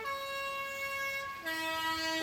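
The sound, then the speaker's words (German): A bus horn sounds loud in one long sustained blast, its bright tone dropping to a lower note partway through, like a two-tone horn call, with no talking. “Oh, nein, das ist mein Bus.”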